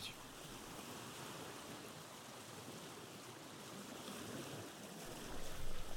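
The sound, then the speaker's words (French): Steady ocean surf rushes continuously, a broad washing roar of waves with a slight swell in loudness near the end. No voices are heard. “on va faire une méditation autour de l'océan”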